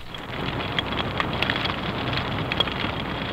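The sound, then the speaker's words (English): Dense, steady crackling underwater as snapping shrimp pop constantly, a continuous fizzing texture of countless tiny sharp clicks like frying fat, with no voices present. “Like you've got Navy researchers headed out with underwater microphones, they're recording whales and dolphins and snapping shrimp.”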